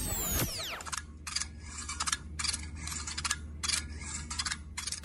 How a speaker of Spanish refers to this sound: una máquina tragamonedas ¡La máquina tragamonedas!